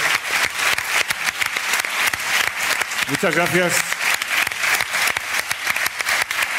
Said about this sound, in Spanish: Muchísimas gracias. Un aplauso enorme a Elvira Lindo. Un verdadero placer.